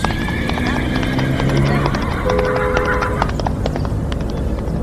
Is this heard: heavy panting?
no